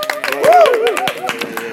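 A short burst of scattered applause at the opening of a show on a cloudy evening, several hands clapping in quick, uneven rhythm, with a rising and falling vocal whoop over the middle of it.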